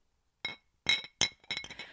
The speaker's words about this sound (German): Ah, halt, ich habe einfach zwei Gläser aneinander geschlagen, Leute.